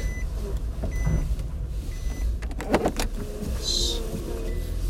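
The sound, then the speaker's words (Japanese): Interior car noise as the vehicle sets off on the drive to the speaker's workplace: a steady low engine rumble with a few clunks and clicks, then a brief high electronic beep near the end. “今ね、えー、会社へ向かう途中の車の中です。もう、本当に今今、出発するところですね。”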